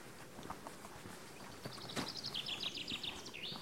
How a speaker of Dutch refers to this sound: Nou, de vink zit mooi te zingen.